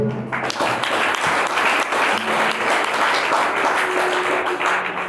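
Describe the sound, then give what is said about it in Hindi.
A crowd applauds steadily during a Christian sermon, dense overlapping claps forming a loud, continuous wash of sound that holds fairly even throughout, with a faint murmur of voices underneath. “okay Tali बजाइए”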